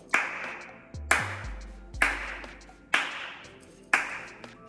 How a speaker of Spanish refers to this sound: Ok, el abierto la técnica era más como que, como cuando estás haciendo un aplauso. La del seco es más como... Voy a volver a repetir. El abierto es más como un aplauso.